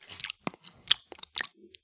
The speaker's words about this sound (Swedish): Och ganska snart så hör du ett tuggande närma sig dig.